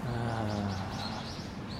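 Birds chirp outdoors in a steady stream of quick, high, repeating tweets, with a low cooing tone underneath at the start and a faint constant background hum.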